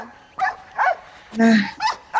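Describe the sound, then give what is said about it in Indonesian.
A dog barks repeatedly: short, sharp barks in an uneven rhythm, with one longer, drawn-out yelp in the middle, over a low background. “ketemu nih Anji yang gonggong gitu ya dan merasa merasa terganggu sama suara yang bising”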